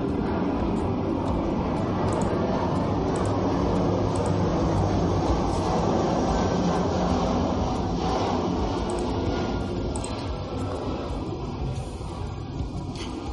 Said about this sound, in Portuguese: Avião